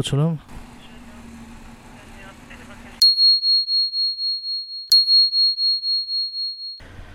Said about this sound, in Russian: Но ну, вот опять что-то звонят, минуточку, поинтересуемся.